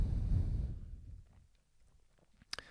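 human body sound, sneeze

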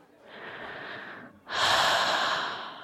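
human body sound, deep audible breathing

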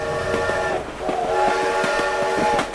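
vehicle, steam train with whistle

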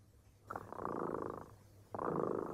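animal, cat purring

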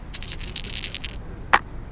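dice being rolled

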